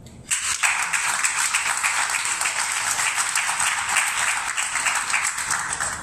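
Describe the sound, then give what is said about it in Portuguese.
Sustained audience applause, a dense wash of many hands clapping at steady loudness for several seconds, without any voices over it. “Portanto, olha, uma salva de palmas para vocês, por favor.”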